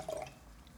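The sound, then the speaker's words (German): A brief, quiet trickle of wine being poured into a glass during wine service at the table, with a soft rising gurgle at the start and a small clink at the end. Nobody speaks. “Oh ja, der, der, da können Sie gerne nachschenken, mein Lieber.”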